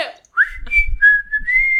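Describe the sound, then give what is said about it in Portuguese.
A person whistles the whistle melody of a song, a short phrase of a few rising then sustained high notes, clear and steady, with a faint low rumble underneath and no talking. “E tem assovios, né? Como é que é o assovio agora que esqueci?”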